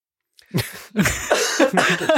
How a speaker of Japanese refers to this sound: 咳が出るんじゃ。出るね。辛いね。辛いですね。